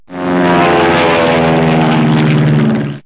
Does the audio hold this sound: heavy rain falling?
no